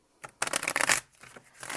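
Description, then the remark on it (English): A deck of cards being shuffled, a quick burst of rapid riffling flutter followed by softer, looser rustling as the cards settle. “We're going to just shuffle the cards.”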